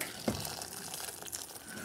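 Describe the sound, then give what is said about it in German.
Boiling water from an electric kettle pours steadily over tomatoes in a heat-proof bowl, a continuous splashing gush with a brief louder knock near the start, moderately loud, with no talking. “Jetzt kommt das kochende Wasser drüber.”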